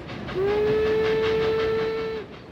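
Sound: train running on rails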